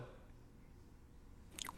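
Chewing of jelly beans, soft and squishy, with steady wet mouth noises and a couple of sharper clicks near the end; no one speaks.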